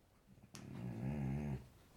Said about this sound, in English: So there might be some odd noises as I'm recording, and th- honestly, they're not me. They are the dog. He's now having a bit of a scratch.